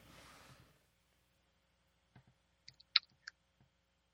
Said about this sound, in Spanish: Escucho teclados por ahí, escucho teclados.